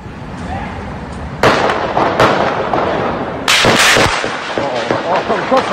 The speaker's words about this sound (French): parce qu'on parle de, plusieurs personnes avec des armes longues qui ont fait feu. un petit extrait d'une des, des vidéos qui circulent pour vous donner un peu le son de, ces armes qui, frappent bien en ce moment.